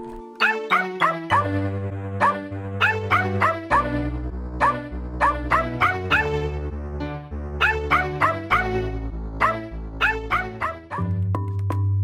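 Rapid dog barks and yips bounce along in a steady rhythmic pattern, loud, layered over a sustained musical bass line like a playful jingle.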